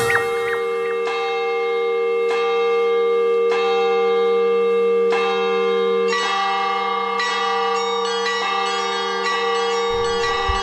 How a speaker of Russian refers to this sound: Брюссель – колокола русской церкви Иова Многострадального, построенной по проекту архитектора Николая Исцеленова в середине 50-х годов XX -го века